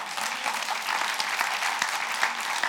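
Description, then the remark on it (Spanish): An audience claps steadily, a dense wash of many hands beating together at an even, moderate level with no talking, the applause sustained throughout. “Si tú no aplaudes, voy a aplaudir yo.”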